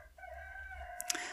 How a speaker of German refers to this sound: Ah, hört ihr den Hahn? Der ist auch hier in Deutschland. Deutsches Kulturgut, hat mir mal jemand gesagt, ist das Krähen eines Hahnes.